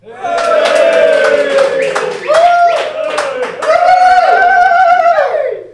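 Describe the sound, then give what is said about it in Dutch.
A live audience in the canteen of FC Ekeren cheers and shouts loudly, voices rising in whoops and yells over scattered clapping, sustained for several seconds with a brief dip in the middle. “Welkom bij de Vierkante Paal met bijna alle stemmen die een rol gaan spelen in deze opname vanuit de kantine van FC Ekeren met live publiek.”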